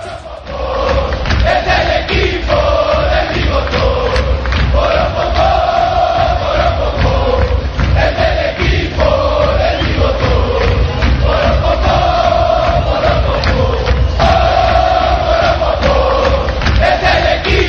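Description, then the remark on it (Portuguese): A huge stadium crowd of football supporters chants a repeating melodic song in unison, loud and continuous throughout, with steady rhythmic thumps pulsing beneath the massed voices. “Vamos ouvir a música 12 deste programa, Isso. O Som das Torcidas.”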